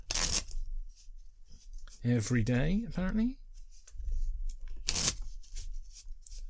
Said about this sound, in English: So, shuffle the deck of my playing cards. Are you excited? I'm going to shuffle the deck of cards.